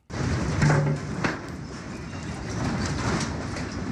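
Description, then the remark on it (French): A dull, heavy rumble of scaffolding collapsing during a magnitude 7.8 earthquake in the town of Pazarcık, southeastern Turkey, at 4:17 local time, with scattered metallic clanks and rattling that roll on steadily for several seconds, fairly loud and with no voices. “Un bruit sourd, des échafaudages s'effondrent.”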